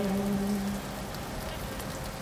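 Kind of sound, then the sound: nature, light rain falling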